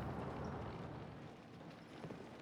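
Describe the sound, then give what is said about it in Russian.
A horse-drawn cart carrying a huge sheaf of hay rolls by on a street in St Petersburg, hooves clopping under a steady, noisy rumble of wheels that stays loud throughout. “На меня чуть не наехала телега с огромным снопом сена.”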